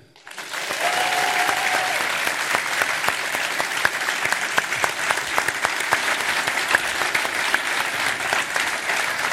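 A large crowd claps steadily, rising quickly to a full, sustained round of applause that stays loud and dense throughout, with individual sharp claps standing out.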